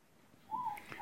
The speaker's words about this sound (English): I'm standing in our clearing where our little hut is, looking straight up at the Milky Way, and all you can hear if you're really careful, is the distant sound of the New Zealand owl, the morepork.